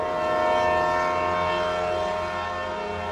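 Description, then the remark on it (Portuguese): A loud train horn blares in one long, steady chord over the heavy rumble of a passing train, holding strong throughout before easing slightly at the end. “Estamos aqui te esperando e o trem já vai partir, hein?”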